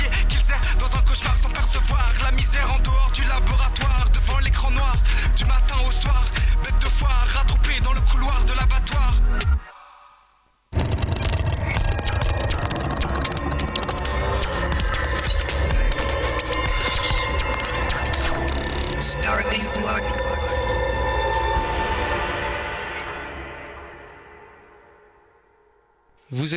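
A rap track plays out its ending: a loud, bass-heavy beat cuts briefly to silence, then resumes with lighter bass and gradually fades away to near quiet.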